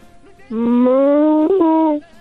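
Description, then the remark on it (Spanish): A child's voice imitates a cow with one long, steady moo, drawn out for about a second and a half with a slight upward lilt, fairly loud. “Uy, igualito que una vaquita, muy bien.”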